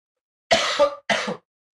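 Two harsh coughs in quick succession, the first slightly longer and rougher than the second, with silence on either side and no talking.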